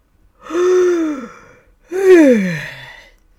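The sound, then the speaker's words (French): A person acts out a bear yawning: two drawn-out yawns in a row, each a voiced, breathy exhale whose pitch rises slightly and then sags downward, with a brief pause between them. “Il bâilla deux ou trois fois”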